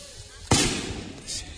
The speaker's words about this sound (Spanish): creo que ya a través de nuestro micrófono se introducirá el sonido de cohetes. Se escucha perfectamente los cohetes